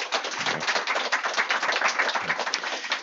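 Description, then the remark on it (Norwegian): An audience applauds to welcome the day's first guest, a dense, steady patter of many hands clapping at an even loudness for about three seconds, with no voices over it. “Skal vi gi han en liten applaus?”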